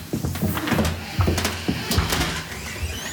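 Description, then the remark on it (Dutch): The door of Mrs. Schultz's room is handled, with several sharp clicks and knocks of a latch and frame over a low background rumble, ending in a firm thud as it shuts. “zat was de deur van de kamer van mevrouw Schultz?”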